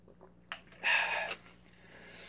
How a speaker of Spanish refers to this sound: Esperen amigos, voy a tomar un poco de agua.